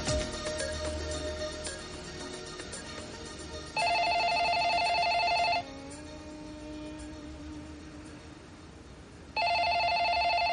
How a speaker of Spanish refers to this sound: Más tarde, los amantes siguen en la cama cuando escuchan el teléfono y dejan que suene.